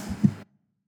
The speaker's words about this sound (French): Bon, si t'entends un petit bruit, c'est le vent. c'est le vent.